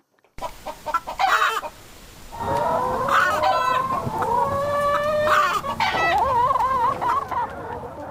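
Several chickens kept as pets cluck and squawk, with overlapping, warbling calls that rise and fall continuously across the whole stretch, busy and fairly loud, no talking.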